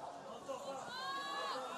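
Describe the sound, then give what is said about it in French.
A crowd at a NUPES closing speech, broadcast live on CNews, chatters and calls out loudly all at once, a dense babble of many voices with a few raised, high-pitched shouts rising above the steady hubbub. “Commencez pas à gueuler plus gros, plus fort.”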